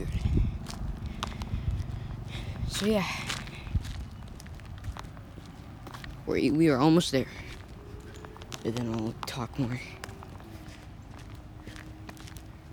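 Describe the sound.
Steady footsteps crunch and scuff along a street gutter, a repeated walking rhythm under a man's intermittent talking, with faint engine hum in the background.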